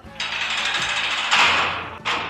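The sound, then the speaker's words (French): A heavy metal prison door grinds and rattles as it rolls shut, swelling louder partway through before a final clanking jolt; no voices are heard. “Eh bien, la porte de prison n'est pas très aimable non plus. Elle ne m'a même pas laissé finir ma question.”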